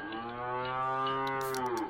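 A cow lets out one long, loud moo, a steady low bellow held for nearly two seconds, with a breathy rasp creeping in toward the end.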